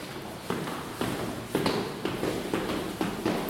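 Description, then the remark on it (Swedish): Three people walk down through a stairwell in a steady rhythm of about seven sharp, echoing taps, roughly two per second, with a faint reverberant hiss between steps and no talking. “Nu vandrar vi alla tre här i trapphuset och det är bra eko här också.”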